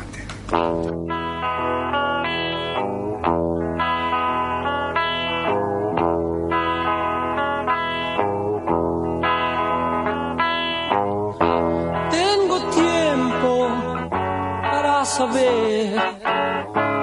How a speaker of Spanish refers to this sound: Vamos a escuchar ahora un tema